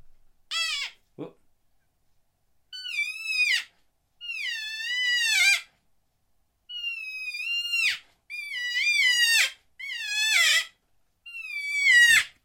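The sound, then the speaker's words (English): A series of seven cow elk calls blown on a bite-and-blow elk call with the bell removed, reproducing a cow elk's whining vocalization. Each is a high, nasal, wavering mew with rich harmonics, separated by brief silences, with no talking. “and that is, I mean, that's just a very accurate sound, accurate reproduction of that vocalization, that the vocal signature of the cowgirl with the bell removed.”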